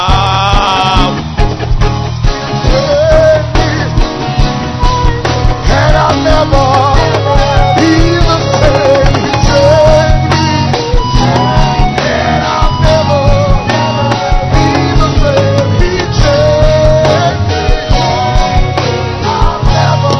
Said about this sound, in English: Keep clapping your hands tonight. Are you happy to be in church? Are you excited you are in church tonight? Then let your hand clap be louder with a shout.